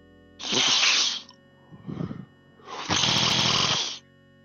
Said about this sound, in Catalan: Fa un soroll amb el nas, com si se'n passés els mocs.